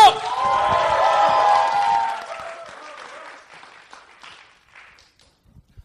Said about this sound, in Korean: 자, 함성 박수 한번 주세요.